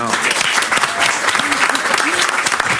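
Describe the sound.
A studio audience gives steady, dense applause, with many hands clapping at once in a continuous loud patter and a few voices mixed in. The applause lasts the whole few seconds.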